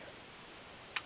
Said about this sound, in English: Uh, if you hear some, uh, for you audio engineers, if you hear my hotel room air conditioning clinking in the background, that's what it is. So don't overthink it.